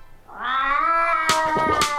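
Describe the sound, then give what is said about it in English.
A cat lets out one long, drawn-out, loud meow, rising into a sustained yowl that ends with harsh, raspy bursts. No one speaks. “I got another problem. Uh, this one's about my cat.”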